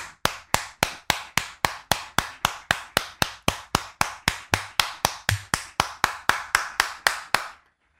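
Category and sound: crowd, audience clapping in acclamation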